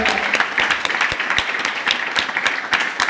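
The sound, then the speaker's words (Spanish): An audience bursts into steady applause, a dense patter of many hands clapping at a fairly loud, even level with a few sharper individual claps standing out, and no talking over it. “Muy bien, muy bien, aplauso.”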